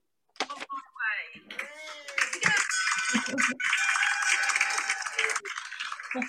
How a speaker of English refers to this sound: Mm-hmm. And here's the bell.